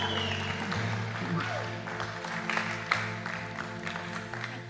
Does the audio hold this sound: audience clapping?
yes